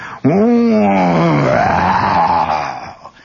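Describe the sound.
A man's voice imitates a reconnaissance plane flying about 16 feet overhead with a loud, sustained droning moan that sweeps up in pitch, holds a rough rumbling tone, then fades out over about three seconds.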